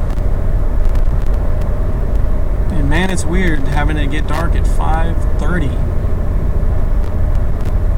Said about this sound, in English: Man, there's a lot of cars going the other direction.